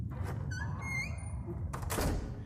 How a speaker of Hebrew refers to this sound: דלת בסוף המסדרון נטרקה.